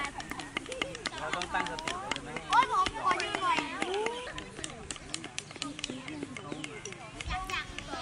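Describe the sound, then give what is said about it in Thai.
A busy children's wood-carving class held under the shade of trees at Wat Sawang Don Yang temple, part of the Phum Phuang mobile learning project, with many young voices chattering and calling over one another while sharp wooden taps and knocks ring out irregularly as the children carve wood by hand. “ก็เป็นเสียงบรรยากาศการเรียนรู้ของเด็กๆค่ะ คุณผู้ฟังนี่เป็นเพียงแค่หนึ่งวิชาที่ถูกนำมาใช้ในรถพุ่มพวงนะคะ”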